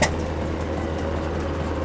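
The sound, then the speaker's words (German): A steady, roaring storm wind picking up again, with a deep low rumble and a broad hiss on top, holding at an even, fairly loud level throughout, with no voices. “Es fängt wieder an zu stürmen.”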